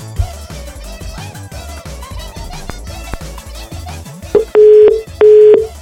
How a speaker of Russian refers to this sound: Что ж такое-то, а? У нас что-то с телефоном. Или, или, или это у нас с телефоном, или это у них с телефоном. Нет, это что-то у, у вас с руками, потому что не может быть на мобильные такие гудки. П, П, П, П.